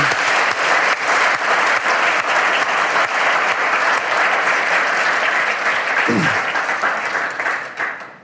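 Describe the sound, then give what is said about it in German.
Sustained applause from an audience at a church worship service, a dense steady clatter of many hands clapping for about eight seconds before tapering off at the end. “Gebt ihm doch einmal einen Applaus, einfach so.”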